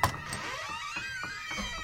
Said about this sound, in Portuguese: chegou em casa, estacionou o carro, entrou.